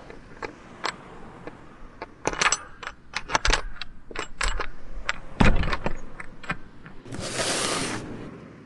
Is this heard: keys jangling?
yes